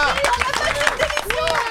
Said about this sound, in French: Merci à vous, Guillaume Meurice. On peut l'applaudir. Merci les copains.